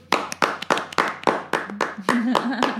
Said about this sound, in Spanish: Entonces vamos a aplaudirle a todas las mamás solteras que trabajan y además se encargan de sus hijos.